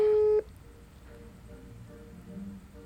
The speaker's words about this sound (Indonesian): coba kita telepon oke okay, berdering ayo dong